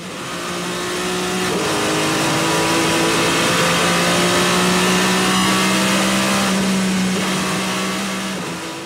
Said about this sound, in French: j'adore le bruit. De toute façon, une voiture, c'est fait pour faire du bruit, pour moi. Donc j'adore le bruit.